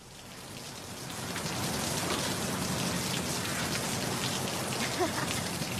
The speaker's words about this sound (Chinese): 下雨了，小心点啊！